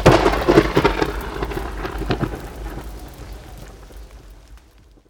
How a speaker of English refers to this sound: But his pleas were swallowed by the roar of thunder.